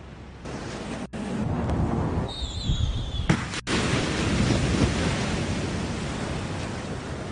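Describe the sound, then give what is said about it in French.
Film sound effects over four shots of the same action: loud, steady roar of the sea with waves crashing violently against rocks, a deep rumble underneath, and a brief high-pitched cry like a bird partway through. No one speaks. “Ces quatre plans déclenchent un effet sonore différent, le bruit de la mer, un grondement, un son aigu proche d'un cri d'oiseau, et le son violent des vagues sur les rochers.”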